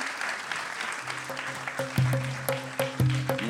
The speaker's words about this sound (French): Je pense que vous pouvez applaudir tous les personnages euh, qui ont été invités.